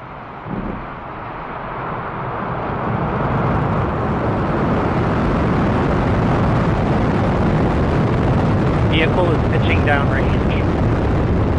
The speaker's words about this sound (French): Vous entendez ce bruit, c'est celui de la capsule Crew Dragon de SpaceX lors de son décollage de Cap Canaveral le 23 avril 2021 avec Thomas Pesquet à l'intérieur.